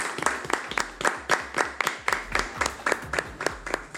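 A small group claps together, a steady patter of roughly a dozen distinct hand claps per second, moderately loud, with no voices over it.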